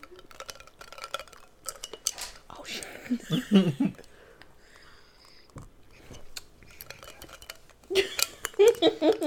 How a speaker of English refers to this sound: You can hear the ice.